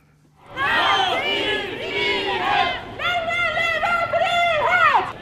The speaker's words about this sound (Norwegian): Vi er eh, på 8. mars-markeringen midt på Jonstorvet. Og vi er her for å være med i kvinnetoget og høre hva studentene tenker.